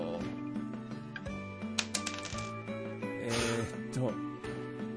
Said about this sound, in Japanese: それではサイコロを回してみましょうか。